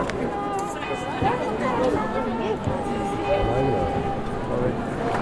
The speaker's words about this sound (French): Là, on est sur l'avenue de la Conciliazione, il pleut un tout petit peu. Et puis, il y a énormément de monde qui remonte tranquillement l'avenue euh, du Tibre jusque la place Saint-Pierre et qui viennent pour écouter la bénédiction du pape.